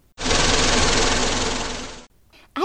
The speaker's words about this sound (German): Schon stiegen sie ins Forschermobil und schnurrten davon.